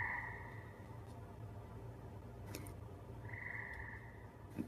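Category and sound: animal, frog croaking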